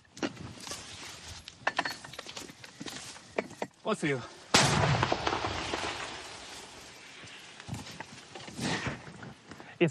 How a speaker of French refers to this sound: Leur arme, ce mortier de 120 mm fourni par la France. Les munitions, elles, sont au compte-gouttes. C'est seulement leur quatrième tir de la journée.